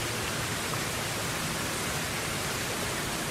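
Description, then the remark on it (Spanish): Water splashes steadily in a public fountain in Ponce, Puerto Rico, beside the Parque de Bombas fire station, a continuous hissing rush with no breaks, fairly quiet, with no voices. “Aquí, justo al lado de la fuente, se encuentra el parque de bombas.”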